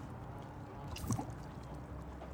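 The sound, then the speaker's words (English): A single soft plop of an oar dropping below the surface of river water while rowing, brief, set against a quiet, steady outdoor water ambience with no talking. “You hear only the plop of the oars dropping below the surface.”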